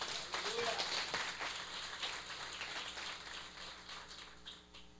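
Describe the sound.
An audience claps for Jesus in a dense, steady wash of applause that holds for several seconds before tapering slightly at the end, with faint voices mixed in beneath.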